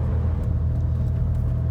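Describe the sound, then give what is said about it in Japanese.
Steady low rumble of a car driving, heard from inside the cabin: a constant deep road and engine drone filling the whole moment, fairly loud and unbroken, with no voices. “ノイズの具合どうでしょうねまだそんなに音としてはこうすごい騒音めいたものが出るようなシーンが今までないのでこの走行音もこのぐらいがなんとか抑えられてたら実際の耳で聞こえてくる音結構この車うるさいんですよね”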